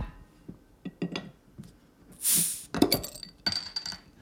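Glasses of Guinness clink together in a toast, a few bright, ringing chimes, mixed with soft knocks and handling noises, with no one talking.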